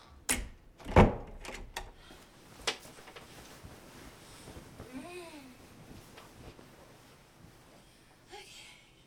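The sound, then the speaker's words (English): A door swings shut with one solid thud, surrounded by a few sharp latch clicks and knocks. A child's faint babbling follows in otherwise quiet surroundings. “I'm gonna shut the door.”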